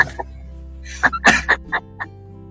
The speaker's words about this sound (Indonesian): itu kan batuk gua